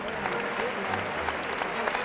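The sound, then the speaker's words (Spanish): A large bullring crowd gives a strong ovation to a Peruvian bullfighter, applauding steadily in a dense wash of clapping with scattered sharper claps standing out, sustained and fairly loud throughout with a faint murmur of voices underneath. “Y saluda una fuerte ovación porque el público ha entendido que ha puesto todo lo que ha podido.”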